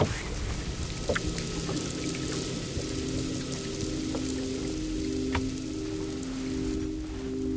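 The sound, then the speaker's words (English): A constant low ship-engine drone rumbles underwater, steady tonal hums over a crackling wash of engine and shipping noise from far and wide, with a few faint clicks scattered through; no voices. “is the whales environment constantly pursued by engine and shipping noise from far and wide”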